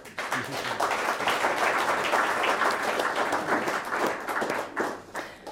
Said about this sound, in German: Ich bitte um einen herzlichen Applaus für Michael Reiterer.